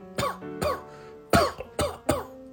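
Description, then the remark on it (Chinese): An elderly person coughs five times inside a large wooden house in the countryside at night: two hoarse, rasping coughs, a short pause, then three more in quick succession. The coughs are fairly loud and stand alone, with no talking. “刚一进门，我就听见了一阵老人的咳嗽声。”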